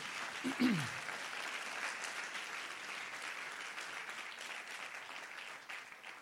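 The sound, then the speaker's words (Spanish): Loud, sustained applause for Jesus from an audience during a pastor's sermon, a dense steady clatter of many hands lasting about six seconds, with a brief vocal shout sliding downward near the start. “Vamos, alguien que lo cree, le dé un aplauso fuerte a Jesús.”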